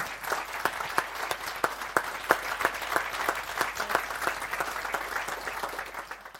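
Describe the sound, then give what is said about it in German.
A crowd of youth and young adults claps steadily for several seconds for their pastors, a dense patter of many hands with sharp individual claps standing out, sustained applause and no voices. “Und dafür möchte ich euch einfach mal einen fetten Applaus geben im Rahmen von der Jugend, von den jungen Erwachsenen und euch einfach danken.”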